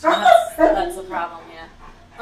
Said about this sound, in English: Um, the dogs are motivated every day. I apologize. That is a dog, not a human being, screaming. Sorry.